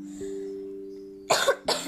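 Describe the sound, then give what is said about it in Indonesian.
Two sharp coughs in quick succession, loud and breathy, following a stretch of low steady hum with no talking. “terus di sini tuh pas aku lagi main lagi batuk”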